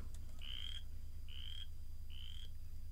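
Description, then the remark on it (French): A boreal chorus frog calls three times in a steady rhythm, each a rising, trilled creak like a fingernail running along a comb, heard clearly over a low, steady background hum. “je viens de tomber sur une vidéo YouTube de, ce que ça fait comme bruit, une rainette faux grillon”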